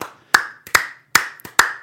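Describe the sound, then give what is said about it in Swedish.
Four sharp open-palm hand claps in a steady, unhurried rhythm, each a loud, bright smack with a brief ringing tail, a couple preceded by a faint lighter slap. No one speaks. “det är bra att du lägger din egen applåd.”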